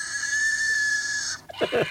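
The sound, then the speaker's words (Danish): A shrill, sustained dinosaur scream holds one steady high pitch for over a second, then breaks into a few short, harsh squeals, like a stuck pig. “Det lyder også som en stukken. Det var, det det er en, stukken gris.”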